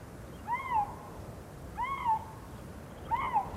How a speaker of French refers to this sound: Professeur, c'est quoi ce bruit Eh bien, des feulements de lynx, voyons.